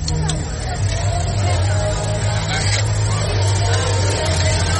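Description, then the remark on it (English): Spiedies sizzle steadily on a street grill at the Apple Fest in Endicott, on the Avenue, at midday on a Saturday in September. A constant crackling hiss, with a crowd murmuring and a low engine-like hum underneath. “Sweet September spiedies. The sizzle.”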